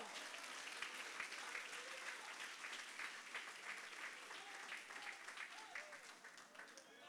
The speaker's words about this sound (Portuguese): e você que pega essa palavra, dá traz glória a Deus aí e aplaude o Todo-Poderoso.